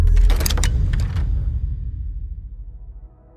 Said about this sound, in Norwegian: Da døra går opp, så får hun svaret.